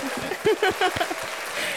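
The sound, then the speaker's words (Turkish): A male comedian clapping for himself, a quick, uneven run of sharp hand claps lasting a couple of seconds, with brief voiced sounds overlapping in the middle. “Kendisini alkışladı.”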